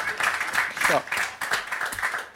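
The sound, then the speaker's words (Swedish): A burst of applause plays as an inserted sound effect for a hockey player's career record, a steady wash of many hands clapping at moderate volume for a couple of seconds, with a voice briefly audible through it. “Så, och nu skjuter vi in en applåd på, för din meritlista där då, när det har svalnat lite grann känslorna.”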